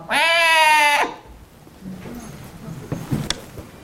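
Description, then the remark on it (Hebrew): A voice imitates a baby crying with one loud, wavering wail lasting about a second, then quiet background with a few faint rustles and taps. “מסתכלת, היא רואה מרחק ממנה, מרחק רב, תיבת גומה, והיא שומעת בכי מהתיבה.”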